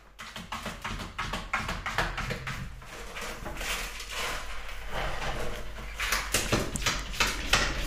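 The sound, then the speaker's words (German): A male cat scratches and digs in a litter box, a steady run of dry, gritty rustling scrapes in quick irregular bursts, moderately loud, with no voices. “Mein Kater ist auf Klo und der ist gerade dabei zu scheren.”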